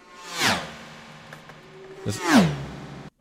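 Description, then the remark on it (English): Two super fast flyby whoosh sound effects sweep past, one early and one near the end, each rising to a loud peak and dropping away quickly, with a steady low hum between them. “So if you use the um, super fast flyby,”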